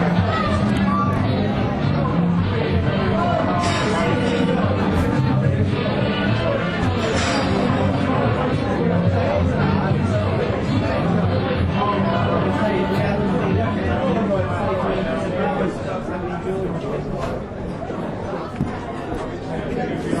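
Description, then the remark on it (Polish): Loud, dense crowd chatter fills a busy hotel bar, many overlapping voices forming a steady hubbub with no single conversation standing out, continuous throughout. “hotel jest dosyć głośno, nie wiem czy będzie w ogóle coś słychać”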